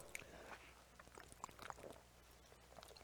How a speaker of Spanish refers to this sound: Permítame tomar un poquito de agua.